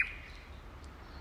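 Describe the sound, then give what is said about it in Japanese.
A few faint bird chirps, played as a bird healing sound, rise briefly over a low, steady background rumble, with no voices present. “はい鳥のヒーリングサウンドとともにお届け”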